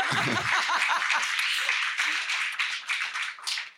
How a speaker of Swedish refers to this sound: Jag ska ha applåder för det.